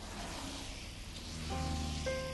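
Soft, steady rain falls in front of a convenience store by a train station, hissing evenly throughout, quiet and diffuse, with faint sustained tones rising underneath about halfway through. No one speaks.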